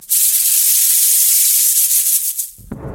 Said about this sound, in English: I slowly turned around, and within milliseconds, I realized that it was the sound of a rattlesnake rattling.